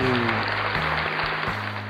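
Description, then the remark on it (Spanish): A steady burst of applause for a woman, wishing her well in her business, dense crackling clapping that holds at an even loudness for about two seconds, with a low droning tone running underneath. “Bueno, aplauso para ella que le vaya, que le vaya excelente ahí en su.”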